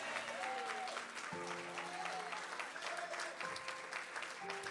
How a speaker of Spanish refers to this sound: Vamos, dale un, tu mejor aplauso en esta tarde. Alguien grite conmigo, aleluya. Dale tu mejor aplauso, ponte de pie ahí donde estás.